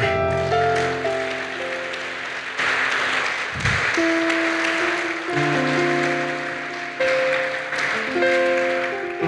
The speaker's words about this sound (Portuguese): Aplauda o Senhor.